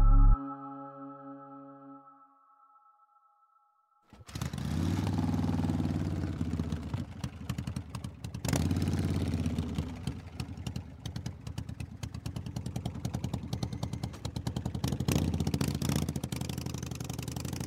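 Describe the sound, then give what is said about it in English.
A brief sustained tone fades out, then a black Harley Davidson motorcycle engine rumbles with a loping, pulsing idle that swells slightly and keeps throbbing steadily to the end, ridden by a gunman alongside a tractor trailer rig on Central Expressway in Dallas at night. “A gunman on a black Harley Davidson motorcycle pulled alongside a tractor trailer rig rolling down Central Expressway toward the heart of downtown Dallas at night.”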